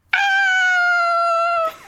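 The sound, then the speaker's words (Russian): A person voices a single sustained, high-pitched scream as a demonstration of a heart-rending scream, loud and steady for about a second and a half before cutting off abruptly, with no other sound around it. “продемонстрируйте душераздирающий крик, пожалуйста.”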